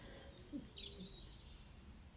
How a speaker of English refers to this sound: So I hope you can hear the beautiful birds in my garden